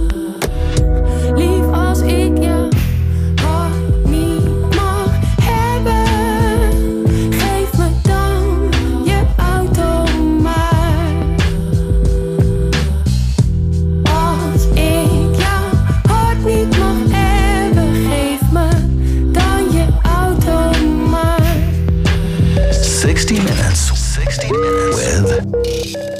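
A pop song plays loud and steady throughout, with a full band groove, a driving bass line and a melodic vocal line riding over the mix.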